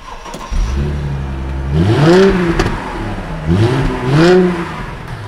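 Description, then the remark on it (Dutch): The engine of a car that has been standing unused for a while cranks and catches at the start, then settles into an idle before being revved twice, the pitch rising and falling with each throttle blip, fairly loud. “Ja, hij staat al eventjes. Dus dan eh, moet hij even opstarten.”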